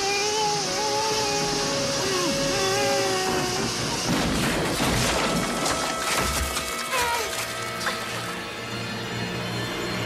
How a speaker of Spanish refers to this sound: manera tan brutal, con doble explosión, porque ya sabéis que en las pelis de la época, cuando, había, cuando se hacía explotar lo que fuera, siempre te ponían dos o tres veces seguidos el mismo plano